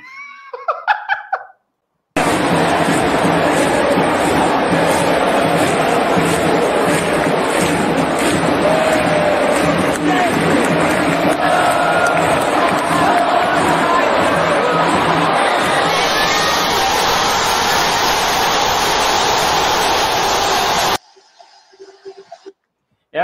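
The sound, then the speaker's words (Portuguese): A huge stadium crowd roars in celebration of a Flamengo goal scored by Gabigol, a dense, loud, unbroken wall of cheering lasting nearly twenty seconds, with brief voices just before and after. “Sente o gol do Gabigol.”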